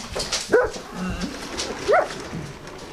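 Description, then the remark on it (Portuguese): A large dog lets out two short, high-pitched barks, spaced more than a second apart, over a low background murmur with no clear talking. “Cão grande.”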